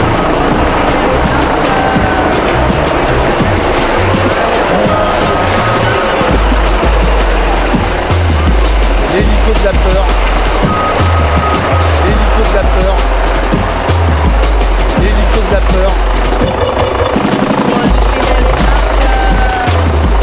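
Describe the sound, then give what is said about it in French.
Coutinho's helicopter arrives flying very low overhead, its heavy rotor thumping loud under a constant roaring rush of engine and wind noise throughout. “Euh, hola pour l'arrivée de l'hélicoptère de Coutinho, très très bas.”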